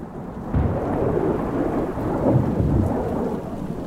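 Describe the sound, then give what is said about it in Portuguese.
Deep, sustained thunder rumbles through a storm, swelling around the middle and rolling on with heavy rain hissing underneath. No voices, just the broad low roar filling the space. “Aí nessa hora, na hora que forma o relâmpago, é ele que dá o barulho do trovão.”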